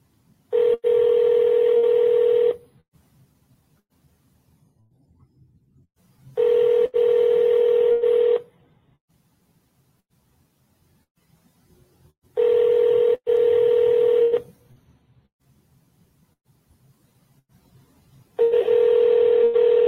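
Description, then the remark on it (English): A phone line ringing on an outgoing sales call to a Raising Cane's restaurant in Hurstbourne at 4:30: four steady ring tones, each about two seconds long, separated by regular silent gaps, clear and fairly loud with no one speaking. “You got to know when to call as well.”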